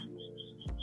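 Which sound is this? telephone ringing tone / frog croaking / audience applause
frog croaking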